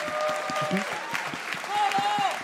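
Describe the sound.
A crowd applauds steadily throughout, a dense patter of many hands clapping at moderate volume, with whoops or raised voices rising above the clapping now and then.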